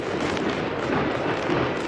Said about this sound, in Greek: Χιλιάδε κάτοικοι του νησιού αλλά και επισκέπτε παρακολούθησαν ένα φαντασμαγορικό αναστάσιμο περιβάλλον. Πυροτεχνήματα και πυρσί σε πλεούμενα μετέτρεψαν τη νύχτα σε μέρα.